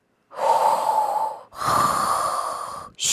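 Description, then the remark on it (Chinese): Soft snoring from an unhatched frog egg that the mother frog hears with her ear pressed to it: two long, airy breaths, each lasting over a second, followed by the start of a third. The breaths are steady and rhythmic, with no talking. “嘘，它听见了小小的打鼾声。”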